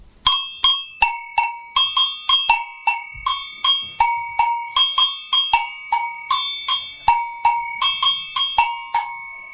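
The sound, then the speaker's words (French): Agogô bells ring out in a steady, lively pattern, alternating low and high metallic strikes with bright ringing tones, with no voices: the large bell gives the low tone and the small bell the high tone. “ça, c'était quoi, Gabriel La gogo”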